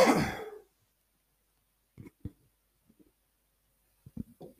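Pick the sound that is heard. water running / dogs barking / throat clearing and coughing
throat clearing and coughing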